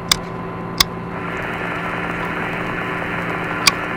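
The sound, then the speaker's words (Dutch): Steady radio static hiss over a low electrical hum from a spacecraft's radio being checked, with a few sharp crackling pops breaking through, one near the start and another toward the end, with no voices. “En de radio? Is de radio nog intact? Eens even kijken.”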